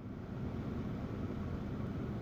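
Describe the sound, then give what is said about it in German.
The engine of a black small car runs with a steady, low rumbling drone, moderately loud, holding even throughout with no voices. “Schon nach eineinhalb Stunden waren wir so zurück am Ausgangspunkt und starteten den Motor unseres schwarzen Kleinwagens.”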